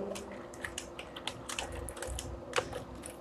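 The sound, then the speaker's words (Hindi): Quick, irregular keystrokes clatter on a computer keyboard as a password is typed while creating a new account, a short burst of typing with uneven spacing between clicks, fairly quiet over a low background hum. “user name भी यही आ जाएगा पासवर्ड आप डाल दो मैं यहाँ पे पासवर्ड डाल देता हूँ”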